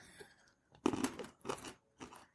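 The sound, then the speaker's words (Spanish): Crisp crunching of peanuts being chewed while tasting them in front of a microphone, in three or four distinct bursts roughly half a second apart, loud against an otherwise quiet background with no talking. “Prueba uno también porque se escucha ah, en el micrófono.”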